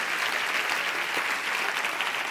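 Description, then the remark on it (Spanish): A crowd applauds steadily, a dense wash of many hands clapping at once, sustained at an even, fairly loud level throughout with no voices standing out. “Si tú quieres aplaude y si no, no.”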